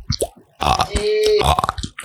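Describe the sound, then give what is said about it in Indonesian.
A long, drawn-out burp rumbles for nearly a second, preceded by a few short throaty grunts and followed by some brief gulping noises; no talking. “Nah, selanjutnya Anda akan mendengarkan suara uh, sendawa selama berapa detik atau berapa menit.”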